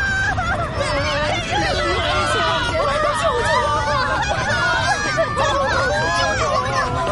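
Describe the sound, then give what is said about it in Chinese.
A panicked crowd of island residents on Crab Island screams and shouts all at once as they flee in all directions during an earthquake, many overlapping high, wavering cries forming a loud, continuous chaotic din with no pauses. “整座螃蟹岛都开始摇晃，岛上的居民们惊恐的尖叫起来，慌慌张张的四处逃跑。”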